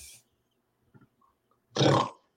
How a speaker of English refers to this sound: I, I even put a snore in there for you